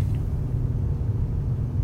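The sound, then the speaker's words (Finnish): A steady, low engine rumble drones on throughout from a car being driven, with a dense bass hum and no voices. “Olen päässyt ohjaamaan ihmisten suosima kulkuneuvoa, autoa auton ohjaaminen on hyvin erilaista kuin sen kulkuneuvon, jolla tulin tänne.”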